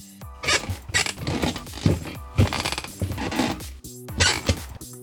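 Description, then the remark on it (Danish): A series of fairly loud creaking bursts from a chair, each squeezed out in short uneven spurts with brief pauses between them, continuing for several seconds with no talking. “Du er jo med mig i dag, fordi du er begyndt at knirke, og jeg vil gerne høre dig først.”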